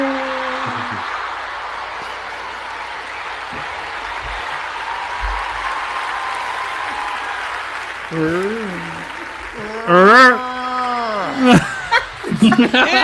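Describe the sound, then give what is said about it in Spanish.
A steady crowd roar gives way to a group bellowing a war cry, loud drawn-out shouts with rising and falling pitch that swell near the end amid cheering. “El grito de guerra.”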